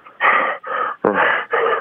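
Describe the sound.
A voice imitates Choi Hong-man's heavy, out-of-breath panting right after his fight with Bob Sapp: four loud, breathy gasps in a steady rhythm, each a harsh rush of air with brief pauses between.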